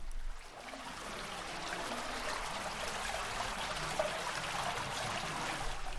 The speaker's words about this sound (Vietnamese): Bên phía tay trái con đường là dòng nước ngầm được kéo lên từ sâu dưới lòng đất, chạy róc rách giống như dòng suối thật vậy.